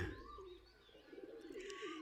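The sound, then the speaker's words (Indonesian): A pigeon coos softly in low, rolling, throaty tones, a couple of murmuring phrases running together over about two seconds, fairly quiet, with no talking. “Ingin rasanya ia kabur dari sangkar, tapi ia tak mau melakukannya karena esok ada perlombaan balap merpati yang harus diikutinya.”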